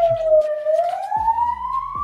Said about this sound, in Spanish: Llegó una patrulla, si la escuchan ahí de fondo, y es por justo mi comentario.